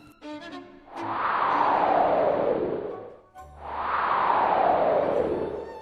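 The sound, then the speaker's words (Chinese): Strong north wind blows in two long, loud gusts, each a couple of seconds of rushing, breathy noise that sweeps downward in tone, separated by a brief pause. No one speaks. “北风不服气地说：“我肯定行。”他鼓起腮帮子，使劲儿吹着气。”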